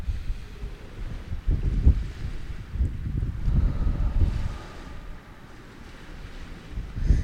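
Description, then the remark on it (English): Wind roars and buffets across the microphone at a beach, with the low rumble of ocean surf rolling underneath in uneven surges. No one speaks; the sound stays loud and continuous throughout. “Do some breathing, even if you want to like come by the ocean and just”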